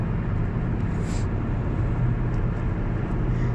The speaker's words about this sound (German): Ich wechsle mit dir mal wieder rüber auf, auf die rechte Spur fährt sich's gemütlich.